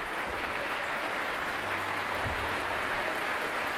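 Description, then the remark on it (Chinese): Dense, steady applause from a large audience, a continuous wash of many hands clapping at an even level throughout, with no individual claps standing out and no voices, at the 2021 Vienna New Year's Concert, for conductor Riccardo Muti, conducting it for the sixth time. “这掌声，相信也是送给第六次执棒维也纳新年音乐会的指挥大师里卡尔多·穆蒂的。”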